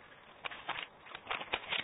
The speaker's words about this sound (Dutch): even de bladzijde omslaan,